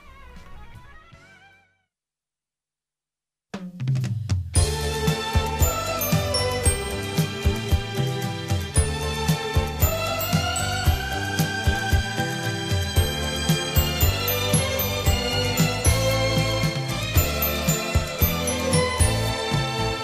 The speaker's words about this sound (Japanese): それでは、えー、今度はあこちらの方の歌を聴いてください、はい、えー、え紹介しちゃいましょうかね